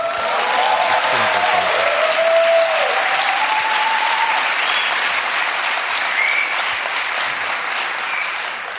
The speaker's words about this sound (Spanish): voy a interpretar este aplauso como de cariño.